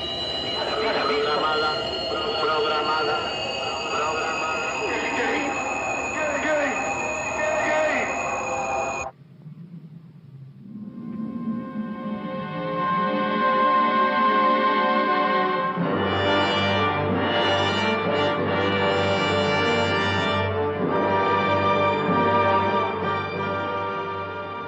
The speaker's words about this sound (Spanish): Así suena en la película una nave espacial engullida por un agujero negro.